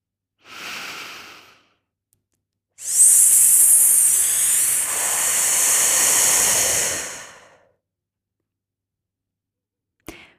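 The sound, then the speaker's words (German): A breath drawn in, then a long, steady hissing exhale through lips shaped into an S, lasting about five seconds, fairly loud, with no talking, done as a relaxation breathing exercise. “Du musst dafür beim Ausatmen einfach mit den Lippen ein F oder ein S formen.”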